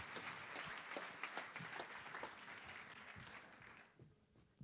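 An audience claps steadily, a dense crackle of many hands that holds at a moderate level for several seconds, then thins out and fades near the end with a few scattered claps.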